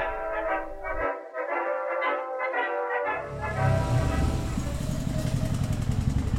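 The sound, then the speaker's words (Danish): A Honda motorcycle engine rises in after about three seconds, a steady rumbling roar that swells and holds to the end, following a tonal, voice-like passage. “Der kom en Honda.”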